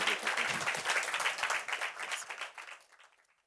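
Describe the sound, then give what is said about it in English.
A crowd applauds to thank two members of Congress, with dense, steady clapping that stays strong for a few seconds, then thins out and fades away toward the end. “So please join me in thanking two very wonderful members of Congress.”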